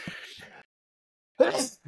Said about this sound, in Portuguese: Desculpem, eu sempre que erro o nome, eu tenho que espirrar.